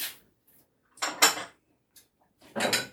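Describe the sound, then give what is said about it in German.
Glass jars for making cake in a jar are picked up and set down, clinking and clattering in three short bursts with a couple of faint taps in between; no one speaks. “So, jetzt nehmen wir uns hier die Gläser.”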